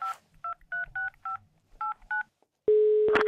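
A quick series of about seven clear touch-tone beeps as a phone number is dialed, followed by a steady, loud ringing tone that ends with a brief click-like burst.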